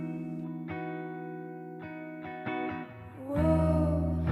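A music track with sustained, heavily processed tones and distorted, effects-laden textures, built from droning harmonic layers that swell louder and thicker near the end, with no voices.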